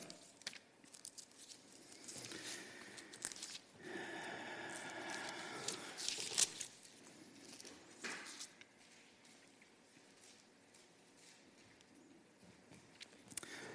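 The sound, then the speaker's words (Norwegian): Papery rustling of Bible pages being turned to Romans chapter 8, coming in a few bursts of quick flipping that swell and fade before settling into softer shuffling. No one speaks. “Det står i Romerne 8 som vi blar opp der.”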